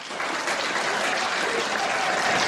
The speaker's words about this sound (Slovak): Ľudia už tlieskajú.